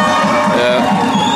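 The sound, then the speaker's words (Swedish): A crowd cheers and shouts after a goal at a school floorball match, part of a yearly sports event where the town's independent schools compete, a loud, steady wash of young voices yelling and whooping together with no pause across the moment. “Nu görs det mål här, ni kanske hör i bakgrunden.”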